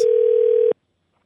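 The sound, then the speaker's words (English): A single steady telephone tone hums loudly and evenly for under a second, then cuts off abruptly into silence as a phone call from Disney Parks connects. No voices are present. “I call from the park, letting them know”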